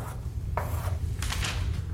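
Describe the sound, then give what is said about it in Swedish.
White chalk scratches across a slate blackboard as a maths teacher writes with quick movements, in a few short, gritty strokes, one brief swipe and then a longer stroke with a couple of pulses, over a steady low hum. “Åttaåriga Jeff ser på sin mattelärare Mr Davis som med snabba rörelser sveper över griffeltavlan med en vit krita i handen.”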